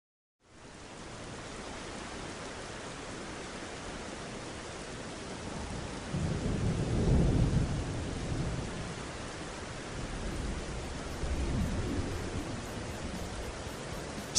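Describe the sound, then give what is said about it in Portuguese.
Steady rain hisses with gusting wind in Seattle in 1991, and a deep rumble of thunder rolls in around the middle, followed by a softer second rumble. No voices. “Seattle, 1991. Chuva, vento e várias bandas tocando músicas depressivas, de morte, de bebida.”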